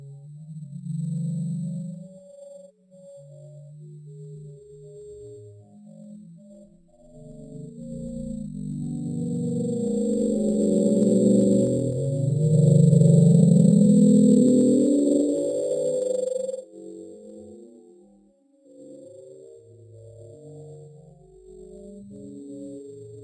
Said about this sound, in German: Das Besondere an dem Bloop-Signal war insbesondere dieser Verlangsamung, dass es, und das kann man gar nicht mehr so ganz genau rekonstruieren, jemanden gab, der behauptet hat, dieses Signal hätte ja Merkmale ähm, einer intelligenten Lebensform